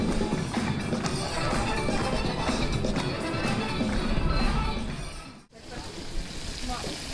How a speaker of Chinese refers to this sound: 啊，这是烤香肠的声音。